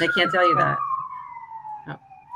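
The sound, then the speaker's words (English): A siren wails in a long, steady tone that slowly drops in pitch as it passes through city traffic in downtown Vancouver, with a person talking over the first moment. “I'm downtown Vancouver. I don't know if you guys can hear the sirens going by.”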